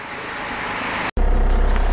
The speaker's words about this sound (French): Là, ça y est, je suis au fond du bus. J'ai demandé à la chauffeuse à quelle place je pouvais.